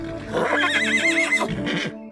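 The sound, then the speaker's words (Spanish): A male mule, the offspring of a mare and a donkey, neighs loudly, a single quavering whinny with a fast warbling pitch that breaks into a rougher, lower snort-like bray before stopping. “Mateo tenía un macho una abominación. Un ser que era el fruto de dos especies diferentes, una yegua y un burro.”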